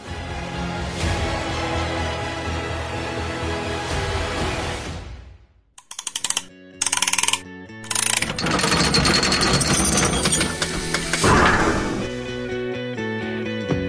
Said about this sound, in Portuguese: Então, bora, roda a engrenagem.